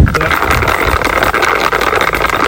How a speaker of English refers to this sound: So what's actually in the ball? So there's a there's one bell and a bead. Um, in the original versions of the ball, it was two bells and it was a lot louder. We are just trying to. This is prototype number prototype two. Prototype number two.